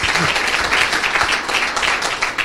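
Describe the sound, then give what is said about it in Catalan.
Steady audience applause welcoming a guest at the close of an event, many hands clapping densely and evenly at a fairly loud level for a few seconds, with no voices standing out. “Fora aplaudiment”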